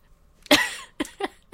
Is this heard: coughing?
yes